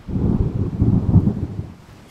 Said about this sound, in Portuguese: As nuvens grossas, cheias, cinzentas, cheias de água, e os relâmpagos, os trovões.